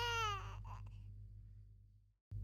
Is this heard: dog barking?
no